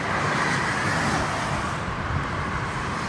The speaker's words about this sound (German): Ein VW Beetle.